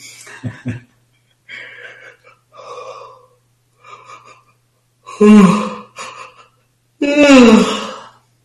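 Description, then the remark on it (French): Several breathy inhales and sighs, followed by two loud, drawn-out, exaggerated human yawns with a groaning voiced tone, with no talking. “Si vous avez des bâillements, accueillez-les. Et je dirais même plus, amplifiez-les.”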